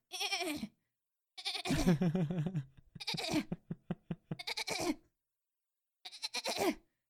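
A voice imitates a goat's bleating: several wavering, nasal calls in bursts, one with a quick stuttering tremolo, separated by short pauses.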